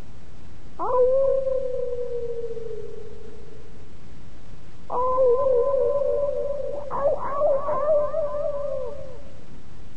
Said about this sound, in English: And uh, and it is the echoing sound of uh, unfriendly animals.